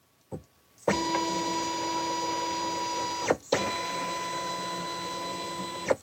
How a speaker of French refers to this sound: Et là, justement, c'est ce scanner qu'on va entendre qui est euh, le, bruit que j'entends beaucoup ces derniers jours.